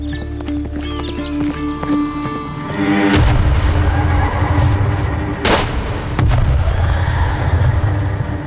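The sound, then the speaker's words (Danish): Loud gunfire cracks and booming blasts erupt from three sides over a dense, rumbling din of battle, following a stretch of busy clattering that sounds like horses on the move. “De bliver beskudt fra tre sider.”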